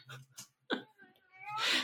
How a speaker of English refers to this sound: This isn't funny, but your cat is very loud in the background. just started going, meow, meow, all the way through that question.